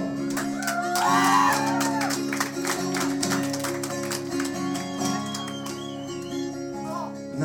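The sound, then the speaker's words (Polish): An audience claps steadily and densely for several seconds for a stage show, the Wodnik performance, at a Welcome of Spring programme, with scattered cheers and whoops rising above it, while low sustained musical tones hum underneath throughout. “Proszę bardzo, spektakl Wodnika, brawo!”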